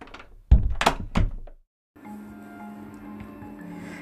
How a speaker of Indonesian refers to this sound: Saat di depan kelas, tiba-tiba dia mendengar suara. Eh, ternyata pintu tutup lagi deh.